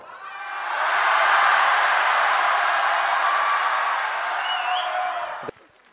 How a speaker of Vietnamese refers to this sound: bây giờ trong một vài giây phút tới hãy la hét thật to cho nó nổ tung cái hội trường này ra một hai ba bắt đầu